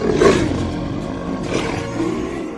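A jaguar lets out a deep, rumbling roar up close, loud and throaty, swelling early and then trailing off in a few rough growling pulses with no voices present.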